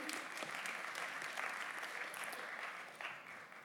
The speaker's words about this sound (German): Ein Applaus bitte für die beiden.